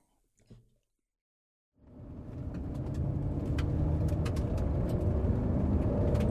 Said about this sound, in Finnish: Ajamme maaseudun läpi sateessa.